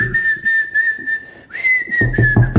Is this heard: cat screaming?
no